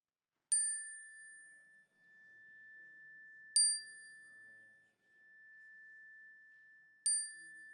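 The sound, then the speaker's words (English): A chime is struck three times at slow, even intervals to open spoken prayer during a morning service, each bright strike ringing out into a long sustained tone that hangs between hits. No voices. “At the sound of the chime, I invite you to speak these names into the room that we may hold them together.”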